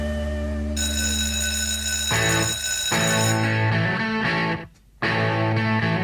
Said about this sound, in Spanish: Ya son el timbre y nos conectamos con la primera clase de esta tarde.